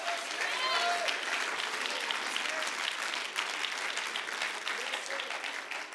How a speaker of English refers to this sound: And if you believe it and agree with it, can you clap your hands and shout for a moment?